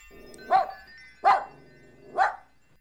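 A puppy barks three times in a steady, evenly spaced rhythm, each short high yap clear, with quiet pauses between and no one talking.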